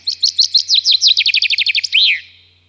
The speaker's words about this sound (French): Et par contre, d'autres chants comme le chant du pinson en l'occurrence.